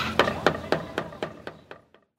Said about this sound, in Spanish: Iniciamos. A picar cebolla.